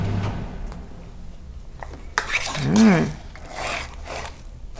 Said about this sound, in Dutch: En ik hoor de droger. Mooi dat ik uh, niks hoef te doen. De droger doet zijn werk.